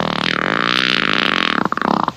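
A loud, drawn-out fart with a buzzy, tonal rasp that breaks into a few sputtering pops at the end, lasting about two seconds with no talking.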